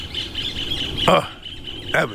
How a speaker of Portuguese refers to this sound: Olha o passarinho cantando, que coisa bonita.